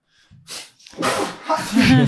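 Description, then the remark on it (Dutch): A loud sneeze bursts out after a short sharp intake of breath, followed by a noisy, breathy tail with some voiced sound mixed in. “Zo, gezondheid.”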